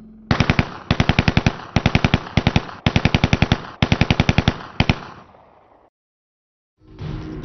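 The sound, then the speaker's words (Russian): A DShK heavy machine gun fires several rapid bursts of booming shots, each burst a quick string of loud reports, followed by a brief silence and a fainter rumble at the end. “Оружие. Пулемёт ДШК.”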